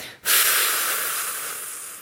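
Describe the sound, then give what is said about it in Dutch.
One long, forceful exhale blown out during a breathing exercise to empty all the air, a breathy rush of air that starts abruptly and tapers only slightly over about two seconds, with no talking. “Dus adem is al je lucht uit.”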